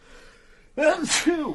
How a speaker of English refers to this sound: Gesundheit.